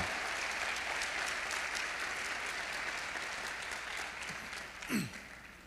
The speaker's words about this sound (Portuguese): Você pode aplaudir o Senhor por causa disso? Uau!